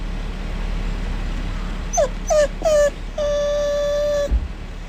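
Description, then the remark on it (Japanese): A dog whimpers while waiting for its food, tapping with its right paw: three short, high, wavering whines, then one longer drawn-out whine, over a low steady background hum. “くんくん泣いては右手ちょんちょんしてまだかなまだかなってお利口ちゃんに待ってます”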